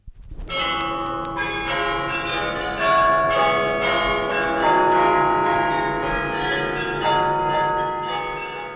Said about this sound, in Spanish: Y campanas para despedir al año viejo para recibir al año nuevo.